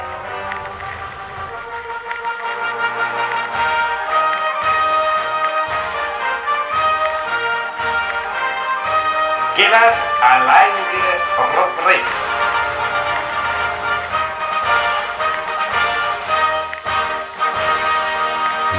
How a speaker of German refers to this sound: Oder, ja dann äh, Jingle ab und Feuer frei. Schingle ab und Feuer frei.